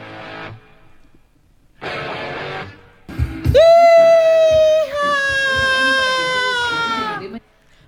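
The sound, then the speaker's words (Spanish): A person lets out a long, loud, strained scream lasting several seconds, rising sharply then holding steady before cutting off, with music playing quietly in the background. “Póngalo de fondo por lo menos y escuchamos el grito.”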